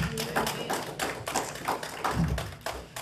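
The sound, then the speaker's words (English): A church audience clapping their hands in praise to God, a dense, steady patter of many claps blending into a continuous burst of applause that holds at an even, fairly loud level throughout. “Give God a good hand clap of praise, real quick, for what he's going to do for you.”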